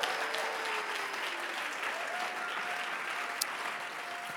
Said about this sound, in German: Komm, lass uns mal einen Applaus geben.